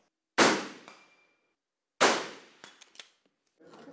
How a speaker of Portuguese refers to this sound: o disparo de um sniper pode atingir uma pessoa a cerca de um quilômetro. Quanto menor a distância, maior a precisão. Aquele ônibus está a 150 metros daqui. É o alvo desse atirador de elite da Polícia Civil de São Paulo.